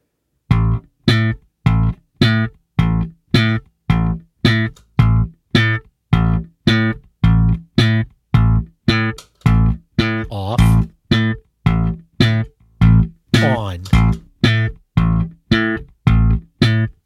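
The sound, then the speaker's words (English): Slap and pop bass guitar playing a steady, even run of punchy, twangy notes, with a few sliding notes near the end, while a compressor is switched during the playing to compare the sound. The bass is loud and plays alone, with no talking. “I'm going to do a few like slap and pops and then you're going to turn the compressor off after I do like I don't know like a couple beats worth.”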